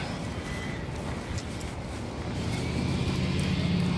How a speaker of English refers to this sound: Oh goodness. Okay, that's not my bus.